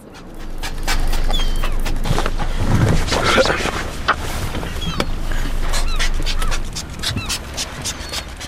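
A group of hungry sea lions huff, bark and pant in a frantic feeding frenzy amid constant splashing, loud, with a low engine-like rumble underneath throughout.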